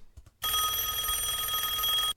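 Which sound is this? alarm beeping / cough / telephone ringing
telephone ringing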